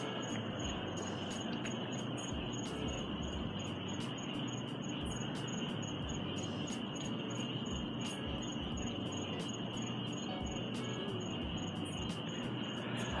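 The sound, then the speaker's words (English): Crickets or frogs chirp steadily outdoors in a dense, unbroken chorus with a high, pulsing trill, layered over a constant low rumble of background noise. No one speaks. “I love to hear the crickets the frogs or whatever they are.”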